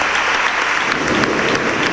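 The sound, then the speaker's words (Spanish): Steady, dense applause from brotherhood members at the reopening of the Templo de Santiago, greeting the announcement that Nuestra Señora del Rocío will be canonically crowned on 5 July 2025: a continuous wash of many hands clapping, loud and even throughout with no voices standing out. “Pues ya ven que el anuncio fue saludado por, eh, los hermanos con aplausos, con esa salva de cohetería.”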